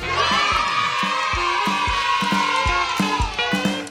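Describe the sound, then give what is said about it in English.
A loud, dense chorus of frogs croaking, with deep pulsing croaks repeating roughly every half second over a continuous high, buzzing din of many calls. “All right, bonus round commences now after the frogs.”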